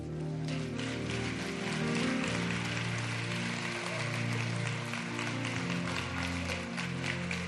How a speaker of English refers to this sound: Come on, let's give them a hand clap.